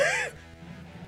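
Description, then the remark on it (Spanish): A single sharp sneeze bursts out loudly at the very start, then falls away into a quiet, low murmur of background sound. “¡Salud!”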